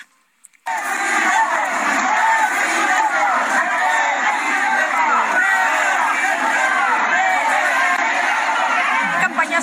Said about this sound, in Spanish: Ricardo Monreal, el coordinador, participó en un acto proselitista de la candidata de Morena al gobierno de Quintana Roo, de Mara Lezama. El legislador también, ¿qué crees? Sorpresa. Ah, sí. Sí, sí, sí, fue recibido con gritos de... Vamos a escuchar.